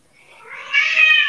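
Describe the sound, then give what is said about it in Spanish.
An angry female cat lets out a single drawn-out, agitated meow that swells from a low start into a loud, harsh wail, with no one talking over it. “Eh, la tengo muy enfadada hoy a la gata, perdonad, ¿Ah, se, la, va a oír mucho.”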